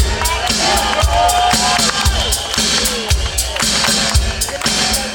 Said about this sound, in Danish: Det er også et veloplagt, friskt publikum, som klapper rytmisk til.